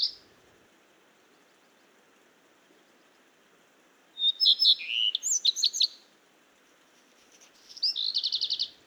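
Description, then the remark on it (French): Two bursts of bright bird song as redstarts sing in turn before dawn, still at night: a common redstart near a streetlamp, black redstarts in the background. First a varied jumble of high notes around four seconds, then a quick rhythmic trill near the end, set against a quiet, faintly hissing background. “En arrière-plan, deux rouges que noirs, avec en fin de phrase parfois une strophe chiffonnée.”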